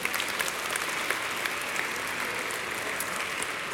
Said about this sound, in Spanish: Y luego tenemos a nuestros pastores que oran. Eso, denle un aplauso a Dios por sus vidas.